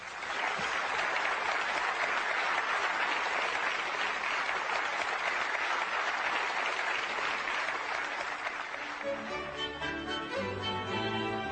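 An audience applauds in a dense, steady wash of clapping for about nine seconds, then the clapping thins as music with sustained tones comes in.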